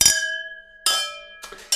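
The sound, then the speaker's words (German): Wine glasses clink together three times in a toast, each bright chime ringing out clearly and fading before the next touch, with no talking. “Also dreimal anstoßen ist auch äh, ein schönerer Schön. Sound, ne?”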